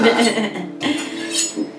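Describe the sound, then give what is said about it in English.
Metal utensils clatter and clink as a kitchen knife is picked up from among other cutlery to chop basil for homemade pesto, with a couple of bright ringing knocks over about two seconds. “Alright, so I got my knife.”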